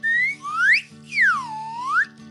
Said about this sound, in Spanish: voy a hacer la flauta de émbolos